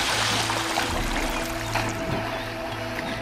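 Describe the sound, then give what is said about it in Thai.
Continuous splashing and churning of river water as a man who has stripped off his clothes jumps in and plays to cool off from the heat, fairly loud, with a steady low hum underneath and no voices. “ชายคนนั้นจึงถอดเสื้อที่เขามีหลงเหลืออยู่ออกทั้งหมด และก็ได้กระโดดลงไปเล่นในแม่น้ำเพื่อหวังที่จะช่วยผ่อนคลายความร้อน”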